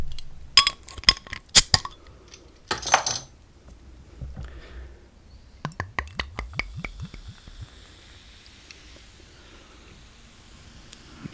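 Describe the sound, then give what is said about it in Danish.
A bottle of 6.5 percent beer is handled and opened: sharp glassy clinks, a brief scraping burst as the cap comes off, then a quick run of small clicks fading into quiet. “Jo, jeg kan da sige, at den er på 6,5 procent, øh, og ellers så vil jeg bare åbne den.”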